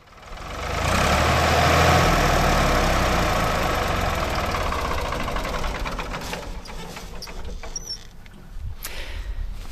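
Five Ford tractors of the same kind, lined up in a row, run together in a loud, rumbling chorus, their steady idling chugs and knocks layered into a dense mechanical drone that shifts slightly near the end.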